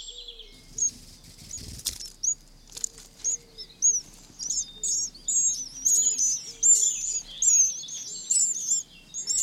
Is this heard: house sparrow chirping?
yes